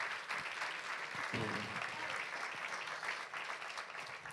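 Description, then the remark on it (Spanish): An audience applauds for Jesus, a dense, steady wash of clapping from many hands filling the room for several seconds, with a brief murmur of voices mixed in partway through. “Dale un aplauso a Jesús.”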